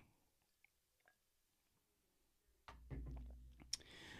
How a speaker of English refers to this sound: Ooh, yeah, I gotta have one more sip.